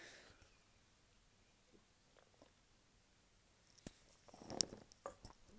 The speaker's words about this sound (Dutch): Even een slok water nemen, want ik heb net dus die wandeling gemaakt.